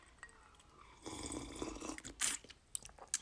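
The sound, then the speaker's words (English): A quiet sip of a drink: a short slurp of liquid followed by a swallow and a few small wet mouth clicks, with no talking. “A quick sip timeout.”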